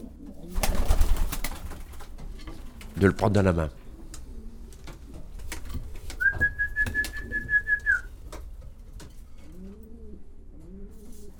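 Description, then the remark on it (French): Pigeons coo softly in a pigeon fancier's loft, low rounded calls repeating near the end, with a brief whistle-like tone and some rustling, while a man speaks briefly early on. “ce qui compte pour euh, le colombophile, c'est de voir arriver ces pigeons, de les voir revenir surtout”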